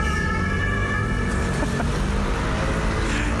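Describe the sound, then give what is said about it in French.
Busy street traffic with cars and scooters, a dense, continuous rumble of engines, with a thin high tone running through the first half and no one talking. “des bagnoles et des scooters.”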